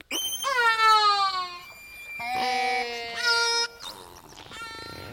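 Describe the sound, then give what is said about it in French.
A sequence of orca calls: loud, harmonically rich wailing tones that slide downward, followed by buzzier pulsed squeals, overlapping one another with no talking. “La chose la plus importante, c'est que les orques se déplacent en groupe et que chaque groupe a un type de son, enfin a plusieurs types de sons en commun.”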